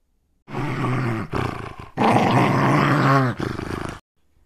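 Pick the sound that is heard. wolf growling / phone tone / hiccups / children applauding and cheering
wolf growling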